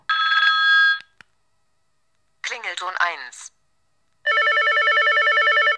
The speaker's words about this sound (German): Klingelton, da gibt es einige, die man eins. einstellen kann. Klingelton 2. Die werden dann auch vorgespielt.